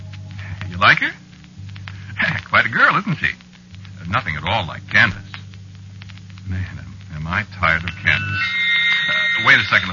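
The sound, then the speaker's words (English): A telephone starts ringing near the end, a steady high-pitched electronic trill. Before it, people talk over a constant low hum. “phone's ringing.”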